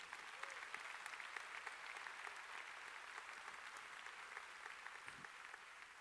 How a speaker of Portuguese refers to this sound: Quem pode dar um aplauso ao Senhor Jesus? Amém.